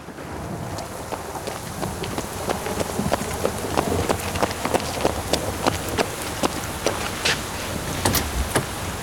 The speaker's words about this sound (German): Ja, hopp, hopp, es regnet rein.